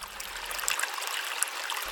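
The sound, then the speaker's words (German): A green, murky stream of dirty water flows steadily with a continuous bright rush and fine splashing, moderately loud, with no voices present. “Ich habe einen Bach entdeckt.”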